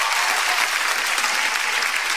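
A dense, steady burst of applause from a crowd, many hands clapping at once in a continuous bright crackle that stays loud throughout without a pause.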